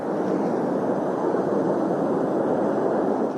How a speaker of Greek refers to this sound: Αυτό που ακούτε είναι ένα πύραυλο δεν το βλέπουμε, αλλά ακούτε έναν πύραυλο αυτή τη στιγμή.